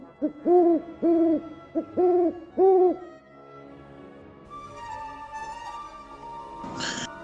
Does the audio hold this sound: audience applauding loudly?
no